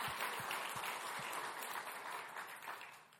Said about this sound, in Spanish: Podemos darle un aplauso a Dios Can we give a hand for God? Amén. Amen.